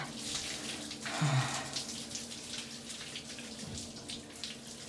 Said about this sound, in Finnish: Vesi valuu lapojen väliin. Vesi valuu pitkin käsivarsia ja tippuu sormenpäistä. Ihan kuin vesiputoukset sormenpäistä.